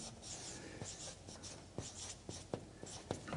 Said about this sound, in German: machen wir mal hier so ein A hin, Ah, ich hoffe, das kann man noch lesen da hinten.